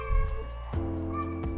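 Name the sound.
cat meowing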